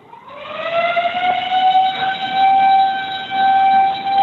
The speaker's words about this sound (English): And I'll let hey, you know if anybody asks, if anybody asks what I'm doing, I'm resetting the alarm over here. Okay, here we go.